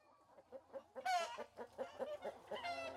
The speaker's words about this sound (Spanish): Cerca a la carretera, saltan y deambulan algunas gallinas. Los primeros cantos de la mañana se escuchan en el interior de la casa.